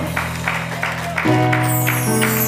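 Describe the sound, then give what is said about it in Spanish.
An audience applauds the Lord in a steady rhythm, the claps blending over sustained organ or keyboard chords that swell and shift midway, loud and full. “aplauso al Señor.”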